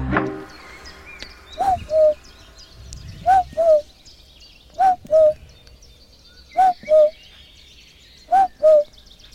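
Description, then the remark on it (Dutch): A person imitates a cuckoo, repeating a clear two-note 'cu-coo' call five times at a steady, unhurried pace, the second note slightly lower, over faint bird chirps in the background, in the Amsterdamse Waterleidingduinen. “Ja, dat was ik die ja. de koekoek nadeed.”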